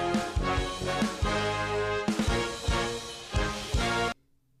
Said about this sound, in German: Das, was ihr gerade gehört habt, war mein Mac. Da ist einfach in der, äh, bei YouTube ein Video angegangen.